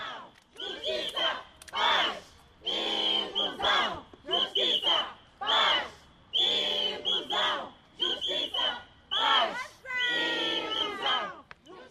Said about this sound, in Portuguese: São pais encarregados da educação, fazem parte, na sua maioria, da cooperativa Luana Sem Sorrisos, que mais uma vez decidiram sair à rua, na capital moçambicana, para fazerem ouvir o seu grito de socorro.